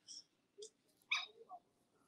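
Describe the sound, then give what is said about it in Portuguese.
A dog near the speaker keeps barking, giving several short, high-pitched barks or yips in an uneven series of four, faint, with quiet background noise between them and no talking. “um cachorro que não para de latir aqui perto de mim, né?”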